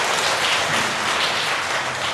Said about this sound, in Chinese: 今天是棕树主日，所以我们很感谢我们的诗班用美好的诗歌来敬拜，带领我们敬拜神。我们用热烈的掌声来谢谢我们诗班。很棒的献诗